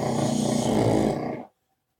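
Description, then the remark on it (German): Two pugs lying in a corner snoring: one long, loud, raspy snore that lasts about a second and a half and then cuts off abruptly into silence. “Ihre beiden Hexenmöps liegen in der Ecke und schnarchen. Hört gut zu.”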